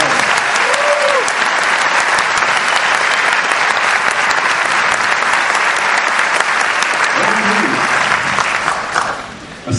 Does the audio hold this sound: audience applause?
yes